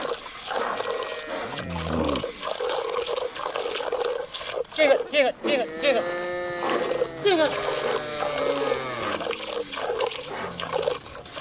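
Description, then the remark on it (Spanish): A herd of cattle lowing loudly, with overlapping drawn-out moos and bellows coming in waves against a steady wash of moving water, as the cattle cross the Niger River in Mali, accompanied by young Fula herders. “Cuando llegan las lluvias, los jóvenes acompañan a su ganado durante seis meses y cruzan el río Níger.”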